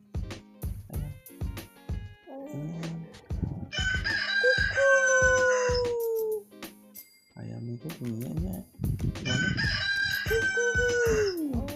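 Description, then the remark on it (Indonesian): A rooster crows twice, loud and drawn out, with short rhythmic chicken clucks before each crow, all clear. “ayam coba ayamnya”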